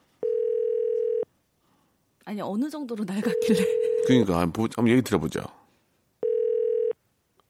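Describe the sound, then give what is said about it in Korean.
A telephone line tone sounds in steady, buzzing one-second beeps, roughly five seconds apart, while people talk in the gap between them, as a call is placed to a listener on KBS's Park Myung-soo's Radio Show. “자, 1012님 전화 한번 걸어봐 주세요.”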